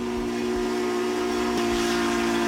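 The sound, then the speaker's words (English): The Polar Express steam train whistle sounds in one long, steady blast as the train speeds away, its low, chord-like tone held throughout over a loud bed of hissing steam, with no one speaking. “The Polar Express let out a loud blast from its whistle”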